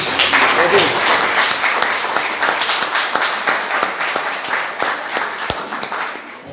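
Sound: audience applauding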